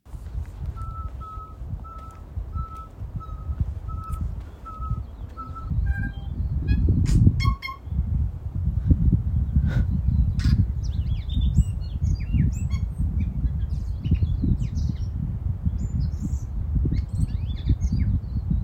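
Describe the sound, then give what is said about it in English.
A single bird sings a long, varied song: first a steady run of evenly spaced beep-like notes, then a rapid jumble of whistles, chirps and clicks, all over a constant low rumble. “Is that all just that one bird?”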